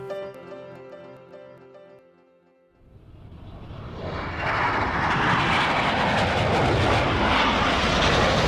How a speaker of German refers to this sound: Die Flieger hinterließen Spuren weiße Streifen, Parallelen, Kreuze. Der Himmel über Brinkebüll war voller Zeichen.